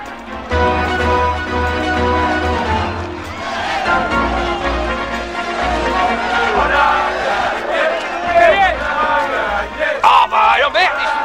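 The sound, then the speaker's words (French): A stadium football crowd whose team is losing shouts and jeers at the referee in a loud, sustained roar, many overlapping voices bellowing together without pause, with sharper individual yells rising near the end. “Vous connaissez le menu 10 minutes de gueulante et après la bagarre.”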